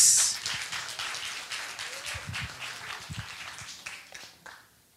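A crowd applauds steadily, a dense wash of many hands clapping at once, holding fairly loud for about four seconds before thinning to a few last claps and fading out.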